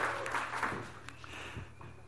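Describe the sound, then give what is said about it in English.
A crowd breaks into applause, a dense wash of many hands clapping at once, steady for a couple of seconds, with faint voices mixed in. “Yeah, that was a cheap line of getting applause.”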